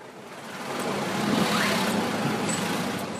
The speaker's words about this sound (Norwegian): Gamle amerikanske biler fra 50-tallet frakter turister litt unna. De vil det bli mange flere av nå.